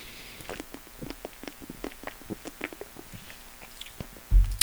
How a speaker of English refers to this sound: Hold on, sip.